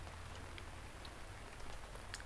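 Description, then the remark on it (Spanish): Steady rain falls shortly before midnight in a soft, continuous hiss, with scattered drops pattering and ticking on a surface. There are no voices, just an even, moderately quiet downpour. “No falta mucho para medianoche y he andado entre la lluvia.”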